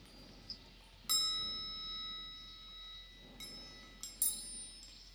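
A few metallic chime strikes ring out, played to end an eight-second silence, each bright tone lingering and slowly fading, with the last two struck in quick succession. No one speaks.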